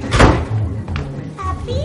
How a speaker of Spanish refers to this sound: Él cierra la puerta.